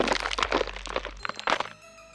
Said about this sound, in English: He slowly shifts back and forth. The sounds of his bones cracking fill the air.